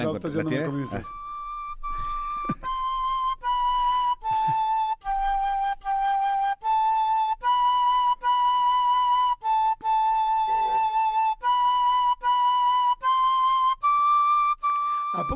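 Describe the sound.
A flute plays Beethoven's Ode to Joy as a simple, slow melody of about a dozen steady, sustained notes, each separated by a brief breath, loud and clear after a short moment of voice at the start.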